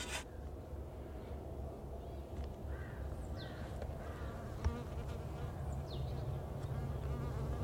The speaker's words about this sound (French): Et là, elle était claire, elle était très claire. Donc c'est pas une abeille d'ici. C'est une abeille euh, d'Europe de l'Est.